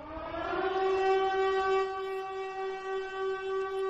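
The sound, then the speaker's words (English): A loud, sustained alarm siren wails steadily with a strong harmonic tone, holding a constant pitch for several seconds with no voices over it. “There it is. There's the alarm.”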